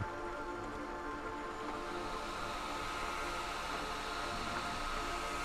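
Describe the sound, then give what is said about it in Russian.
A hair dryer blows steadily, a constant rushing whoosh with a faint motor whine that holds at the same level throughout, with no voices, as a professional styles oiled hair with a round brush, holding strands in the warm airflow. “Профи берет фен и круглую расческу.”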